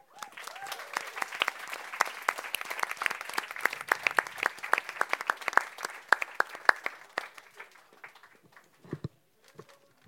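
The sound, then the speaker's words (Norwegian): An audience applauds with dense, crisp hand claps that hold steady for several seconds, then thin out into scattered individual claps before fading. The applause is for the two organizers from Yata and Tullete alvor at the close of a panel event. “Så gir vi en stor applaus til de to arrangørene fra Yata og fra Tullete alvor”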